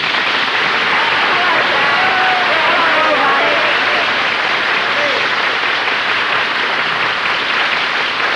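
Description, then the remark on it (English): A crowd bursts into loud, sustained applause welcoming a woman's arrival, a dense wash of clapping that holds steady for several seconds, with faint cheering voices mixed in. “Hey, what a reception”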